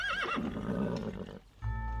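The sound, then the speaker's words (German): A horse pulling a cart gives a loud, wavering whinny, followed by rumbling clatter of hooves and cart wheels as the cart travels to Spandau, then a steady low rumble with a faint whistling tone at the end. “Ein Fuhrwerk nimmt sie nach der Schlossbesichtigung von dort mit nach Spandau.”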